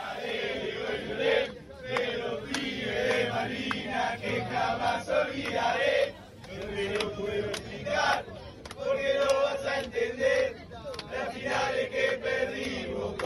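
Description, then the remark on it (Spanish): A big crowd of football fans sings a viral Argentine chant together, loud and continuous, with a rhythmic melodic swing and brief dips between phrases, heard on its own without any talking over it. “Oigan, eh, pues les platicaba del cántico argentino que se ha hecho muy viral, que hay unas niñas en una canoa haciéndolo y todo.”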